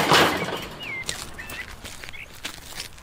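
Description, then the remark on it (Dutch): Footsteps crunch slowly over gravel at an unhurried walking pace up a villa's driveway, about 500 metres long and laid with gravel tiles, with a few irregular scuffs, while birds chirp and whistle faintly in the background. “En ik schrijf nu eh, eh, de oprijlaan op.”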